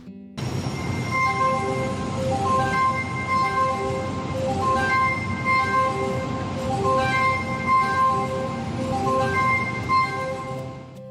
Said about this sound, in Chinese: 这个就是够贴， 够贴， 够贴， 够贴。 没错，就是高铁的声音。